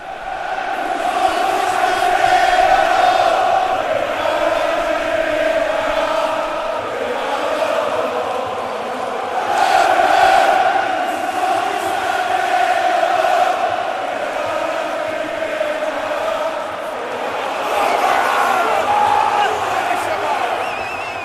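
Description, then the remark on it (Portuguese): A large stadium crowd roars and chants continuously before a football final, swelling into louder surges of cheering every few seconds, a dense wall of many voices with no single speaker standing out. “Bom, pessoal, agora, como vocês já podem perceber, acabei de entrar no gramado e aí sim, clima de final. A torcida não está fazendo uma mega festa, mas está legal.”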